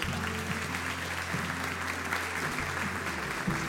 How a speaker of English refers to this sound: Um, one of the most, in my estimation, one of the most powerful apostles on the planet today. Come on, let's give him one more big hand clap.